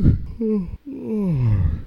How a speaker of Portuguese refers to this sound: Ai, desculpe, já está bocejando. É assim. A gente vê uma pessoa bocejar, o que, que acontece? Tem um gatilho que Deus criou dentro de nós que nos leva a bocejar também.